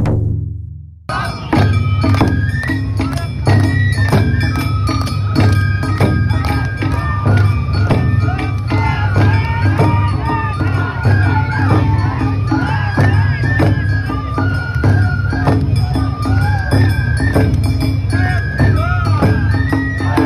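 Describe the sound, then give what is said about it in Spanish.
Lively Awa Odori festival music with a steady drum-driven rhythm, bright flute and bell melody, and a crowd chanting and shouting along loudly throughout, continuous. “Y es escuchar una y otra vez una melodía que te la voy a poner aquí, porque esto es, eh, esto es música que no te cansas nunca de escucharla.”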